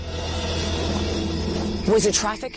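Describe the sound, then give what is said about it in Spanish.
Crackly air traffic control radio chatter, heard at a base in New Mexico, with a steady hiss of static underneath, and a brief burst of distorted, unintelligible voice transmission near the end, moderately loud. “¿La comunicación de tráfico aéreo que oímos es una coincidencia o es que hay alguien en la base siguiéndonos la pista?”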